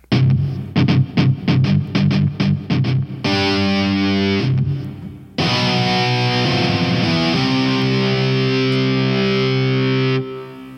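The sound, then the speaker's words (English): Heavily distorted electric guitar from a virtual instrument, loud: a run of sharp palm-muted chugs, then sustained overdriven chords and a held note ringing with thick harmonics. No voices. “Oh, sounds very powerful.”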